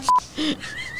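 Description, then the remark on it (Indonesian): A short, loud electronic telephone dialing beep, followed by a lower brief tone and a faint, steady high whine, with no voices. “Telepon Andre. kring kan saja dulu itu.”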